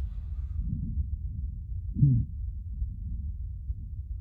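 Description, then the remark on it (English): Muffled, low internal body sounds picked up by a DIY microphone built with a stethoscope touching the body: a steady deep rumble with soft thumping pulses and a louder muted thud near the middle, no voices. “And you touch the body, and straight away you can hear uh, the sound from the inner body because it's in contact.”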